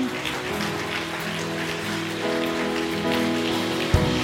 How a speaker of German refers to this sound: Ey, vielen Dank, ihr fünf. Lass uns mal diesen fünf Leuten einen fetten Applaus geben.